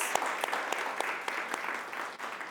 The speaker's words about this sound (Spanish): Así que familia, vamos a darle un aplauso muy grande a Dios.